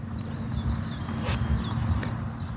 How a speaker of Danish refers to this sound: Og man kan høre gæresangeren derinde bagved os, der siger klap, klap, klap, klap, klap, klap, klap, klap, klap, eller et eller andet.